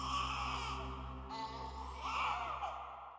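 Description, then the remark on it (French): A baby cries steadily with wavering, high-pitched wails, joined by what sounds like a woman's sobbing, in a room of the Waverly Hills sanatorium, the two blending together continuously with no talking. “Certaines personnes affirment aussi avoir entendu des cris de bébé et des pleurs, les pleurs d'une femme dans cette chambre.”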